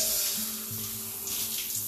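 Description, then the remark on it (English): Cold water runs steadily from a tap in a shower and over a person's chest, armpits and stomach: a continuous hissing splash with a faint low hum underneath, fairly loud throughout. “Cold water on the chest, under the armpits, on the stomach.”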